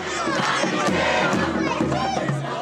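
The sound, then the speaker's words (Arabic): A large crowd at an anti-regime demonstration in Homs, Syria, on 29 August 2011, during the Syrian revolution, chants and shouts together in unison: a dense, loud wall of many voices sustained throughout, energetic like a street protest. “بالأشهر الأولى من الثورة السورية بال2011 كانت مقاطع الفيديو عم تنسرق سرقة لتوثق هتاف أو مظاهرة أو كلمة ضد النظام”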